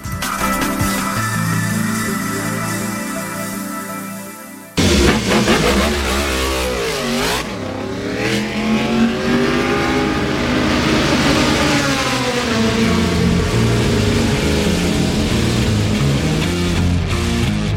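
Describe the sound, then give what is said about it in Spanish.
Racing motorcycle engines rev loudly and continuously, their pitch climbing and falling in repeated sweeps, with an abrupt change in the sound about five seconds in. No one speaks. “Las motos.”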